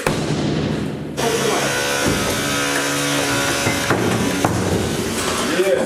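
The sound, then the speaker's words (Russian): An apartment door is forced open by KGB officers in September 2021 with a run of heavy, splintering blows and cracks of wood over a loud, grinding background noise. Muffled voices can be heard now and then. “Я считаю до трех, а ломаем дверь.”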